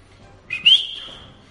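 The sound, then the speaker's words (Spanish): A father watching a match gives a single sharp whistle to urge his child, who is playing, to be more alert: a bright tone that rises briefly and then holds steady for about a second before fading, heard clearly with no talking. “Ya, sabías que la ITA estaba ahí y era un silbido, silbido cuando decía, venga, espabila un poquito que hoy, estás hoy no te ¿eh?”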